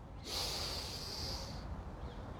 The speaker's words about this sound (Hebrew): תודה על מה שיש. נושמים, יש נשימה.